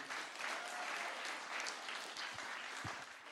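An audience at a meeting claps steadily to thank a speaker for sharing her story, a dense wash of many hands with no single claps standing out, sustained at an even level throughout without any talking.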